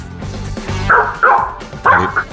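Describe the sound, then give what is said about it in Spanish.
A female dog barks three times in quick, uneven succession, loud, with a softer yip or whimpering sound before the first bark. “Cuando suena la perra pone en el guión wow.”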